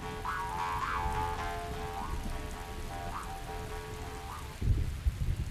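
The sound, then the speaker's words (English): Steady, hissing thunderstorm rain pours throughout, layered with sustained harmonic tones and soft rising swells, before a low rumble of thunder surges in near the end. “sometimes all you need is some harmonic frequencies and the sound of a thunderstorm to connect you to the universe.”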